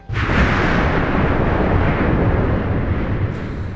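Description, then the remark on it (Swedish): A violent phreatic (volcanic steam) explosion at Lakagigar, where hot magma of 600 to 1170 degrees Celsius meets groundwater, blasting out ash, rock, steam and water: a sudden blast, then a loud, sustained rumbling and hissing wall of noise with no one speaking. “Det här skapar en våldsam explosion av aska, sten, ånga och vatten.”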